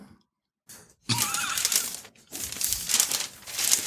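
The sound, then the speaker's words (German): Crackly crinkling of paper being handled and folded while someone wraps an anniversary gift, coming in irregular bursts with a short pause in between, with no voices. “oh, was knisterst du da schon wieder rum?”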